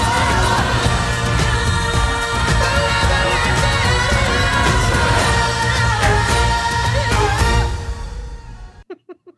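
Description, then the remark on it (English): A loud, full Hollywood-style musical number with a group of voices belting out together over dense instrumental backing, running steadily for several seconds before cutting off abruptly near the end. “I can't so, hear you over the white voices shouting out Hollywood number.”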